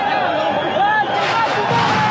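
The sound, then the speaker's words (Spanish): A chaotic crowd of union workers trying to force entry at the main entrance of the Dos Bocas refinery construction site in Tabasco roars and shouts continuously, many agitated voices overlapping in a dense, loud wall of babble with occasional whistles or yells, growing more intense toward the end. “La entrada del personal que construye la refinería Dos Bocas en Tabasco se volvió un caos este miércoles.”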